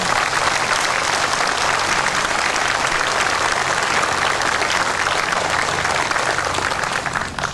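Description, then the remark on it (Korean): Sustained applause from a large audience after a speech, a dense, steady wash of clapping at an even loudness throughout, with no voices standing out. “저는 그 해외 나갈 때도 조용히 나가고 돌아올 때도 조용히 들어오고 이제 연설하고 박수 받는 걸 참 좋아하는데요.”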